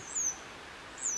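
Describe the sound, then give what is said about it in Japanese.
A fledgling grey wagtail chick, one of two apparently fallen from the nest into a garden by a kitchen, calls twice, each a thin, high-pitched peep drawn out slightly downward, about a second apart, fairly faint over a soft background hiss. “今この今鳴き声聞こえますかねこれねこれね奇跡霊の鳴き声なんですけどそこに2羽いるんですよねでこれ実は多分巣から落ちたと思うんですけど”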